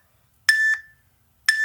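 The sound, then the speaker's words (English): Electronic timer beeps, loud, sounding like a truck reversing: one sharp tone, then another about a second later, with silence between and no talking. “Um, you will get beeps. They sound like this.”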